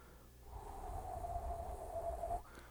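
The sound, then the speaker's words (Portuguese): A single long, noisy exhale lasting about two seconds, steady, with a faint voiced hum running through the rush of air before it cuts off, released during a guided breathing exercise. “vai segurar a energia por 3 ou 4 segundos lá no segundo centro e depois vai soltar em tempos de 4 a 6 segundos fazendo barulho”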